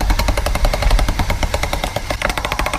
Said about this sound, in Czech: Musíme si nejdřív vyválet vlastně tu polymerovou hmotu. Můžeme smíchat různé barvy a udělat to takový dohový přechod a dáme to do strojku na polymerovou hmotu, ale je to v podstatě strojek na těstoviny.